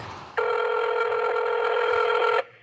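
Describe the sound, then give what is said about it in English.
A single ringback tone from an outgoing phone call to the Tidwell Law Group, a steady electronic purr lasting about two seconds, heard clearly with no talking. “I reached someone by phone,”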